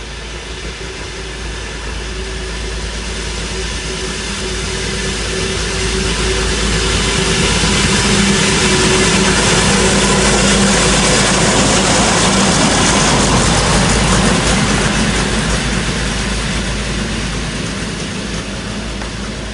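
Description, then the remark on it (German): The diesel engine of a DB class 795 railbus idles steadily for about twenty seconds, a dense rumbling drone with a faint low hum that swells slightly louder in the middle before easing back. No voices. “Der DB795. Ein seltsamer Twitter zwischen Bus und S-Bahn.”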